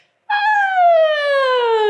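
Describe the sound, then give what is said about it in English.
A single voice performs a siren exercise to relax the voice box: one loud, continuous sung tone that starts high after a moment of silence and glides smoothly and steadily downward in pitch. “sirens is when you just relax into what is a siren”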